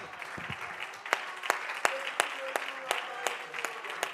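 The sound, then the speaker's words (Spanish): An audience applauds in praise of the Lord in a steady wash of many hands clapping, with sharper individual claps standing out at roughly regular intervals; faint voices call out underneath. “Alguien que tenga ese deseo, que lo alabe y lo aplauda en espíritu y en verdad, hermano.”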